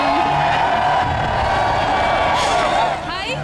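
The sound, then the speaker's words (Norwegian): A crowd cheers loudly and continuously as a TV show participant steps out of a limousine, a dense wash of many voices with rising whoops and shouts breaking through toward the end. “Men jeg hører Eh, at folk jubler”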